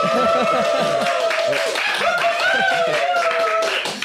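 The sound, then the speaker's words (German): A live audience at the Campervan Summit Meeting in Tyrol applauds loudly and steadily for about four seconds, dense clapping mixed with cheering and whooping voices throughout. “Also wie ihr hören könnt, sie sind tatsächlich da.”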